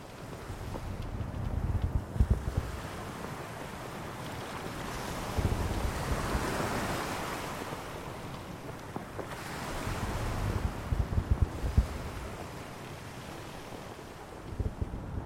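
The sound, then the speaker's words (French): Heavy surf crashes in repeated surges while strong wind roars across the microphone, a loud, continuous stormy wash with periodic swells of breaking waves and no voices. “De, l'expérience grandiose de la tempête sans être malade et de le voir ces vagues décapitées, euh, ciel de, soufre et euh, hurlement euh, de, de, la nature, hein, c'est magnifique, je ne regrette rien.”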